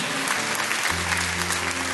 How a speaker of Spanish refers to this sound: Amén. Da un aplauso a nuestro Dios.